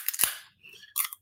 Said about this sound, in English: So I got to crack a cold one up for him.